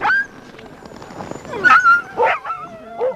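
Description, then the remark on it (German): Siberian huskies born in Finland yip, whine and bark in a lively cluster of short, high-pitched cries, several overlapping calls with a few louder bursts toward the end. “Uh, das hier sind sibirische Huskies, in Finnland geboren.”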